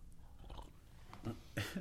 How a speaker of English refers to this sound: Sipping.